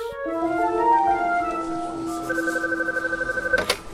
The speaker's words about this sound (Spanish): En principio no sospecha nada, pero al lunes siguiente el teléfono suena otra vez.